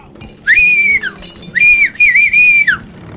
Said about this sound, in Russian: Сеймор, сохранивший долю здравого смысла, стоял в конце проулка и свистел, призывая полицию